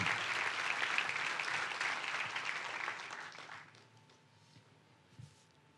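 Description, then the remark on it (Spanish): A large crowd claps steadily for God in a dense, sustained wash of applause that fades out after a few seconds, leaving quiet with a faint hum. “Dele un fuerte aplauso a Dios por eso.”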